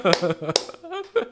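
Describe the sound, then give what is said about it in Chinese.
Two or three sharp, quick hand claps ring out among people talking and laughing, each clap a bright, snappy smack that cuts briefly above the voices. “哎呀，拍拍手。”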